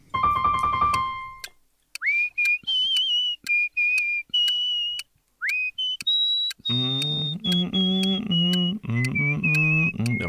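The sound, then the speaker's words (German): A person whistles a slow, gentle lullaby melody, the tune used as their phone's notification tone, in clear separate notes with short pauses. Toward the end a low hummed voice joins beneath the whistling. “Und dieser Ton ähm, ist folgendes Lied.”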